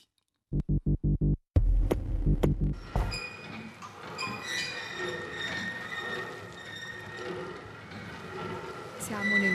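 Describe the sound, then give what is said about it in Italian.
A reproduction of a four-spindle flyer spinning machine designed by Leonardo da Vinci runs at the Museo Leonardiano in Vinci, Italy: a few rhythmic low thumps at first, then a steady, dense mechanical whirring and clatter with squeaky, ringing overtones that carries on throughout. “il rumore eh, di una macchina progettata da Leonardo e qui riprodotta, un eh, filatoio ad aletta a quattro fusi”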